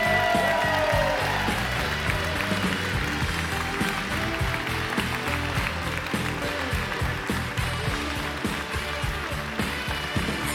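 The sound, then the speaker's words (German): An audience applauds steadily for about ten seconds for the speaker's father and whole family, a dense, continuous wash of clapping with a low, rhythmic rumble beneath it, with no voices standing out. “Meine Damen und Herren, bitte Applaus für meinen Vater und meine ganze Familie.”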